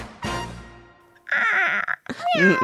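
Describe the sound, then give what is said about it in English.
A person imitates a cat's meow with a few drawn-out, wavering vocal cries in quick succession, fairly loud, with short pauses between them. “Okay, a meow, a meow would be like.”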